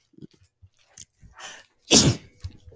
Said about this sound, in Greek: πω θα φταρνιστώ.